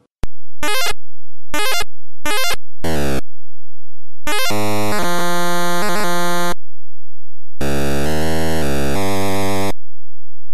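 Harsh, buzzy electronic bleeps from an early video game: several short rapid chirps, then longer sustained square-wave tones with wobbling pitch, loud, with no voices.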